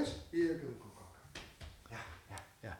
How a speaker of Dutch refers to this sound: ja, hij heeft even in mijn arm gebeten. Ja. Hoort erbij. Het is een jong, eh, het is een pup. Het is jong dier.